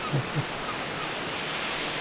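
A field recording of ocean waves washing on a beach: a steady, hissing roar of surf that stays even throughout, with a couple of soft low thumps near the start and no voices.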